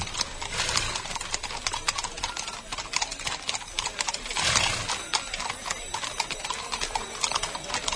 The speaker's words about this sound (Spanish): Vamos a escuchar los cascos de los caballos. Venga, vamos a escucharlo.